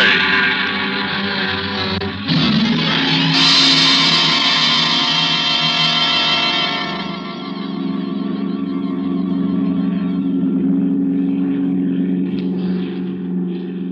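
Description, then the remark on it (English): A propeller airplane engine roars at full throttle during takeoff down an asphalt runway, a loud, steady drone with dense harmonic layers that swells early on, then gradually eases to a lower, sustained hum. “I gave a full throttle roar down the asphalt runway and banked sharply out over the”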